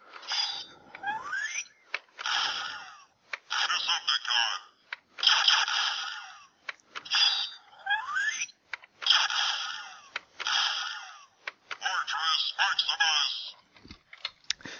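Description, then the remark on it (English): Electronic toy sounds from a talking Transformers Headmaster figure, made when its head is locked in and the chest button is pressed: bursts of tinny, band-limited synthesized voice and whirring effects in repeated phrases, with rising sweeps and clicky mechanical chirps between short pauses. “So they're the noises that he makes when he's locked in.”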